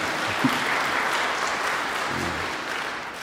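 Steady applause from a crowd, a dense wash of many hands clapping at an even level for a few seconds, with a faint voice briefly audible underneath.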